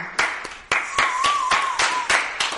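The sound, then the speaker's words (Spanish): A small group of people applauds a special guest as he is introduced, sharp irregular claps for a couple of seconds, with a faint sustained whistle rising over the clapping. “Después tengo al invitado, al invitado especial y le voy a pedir aplausos a todos aquí.”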